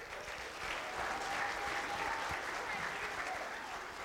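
Steady audience applause as a group comes up to present, a dense wash of many hands clapping at an even level for several seconds, with faint crowd murmur underneath.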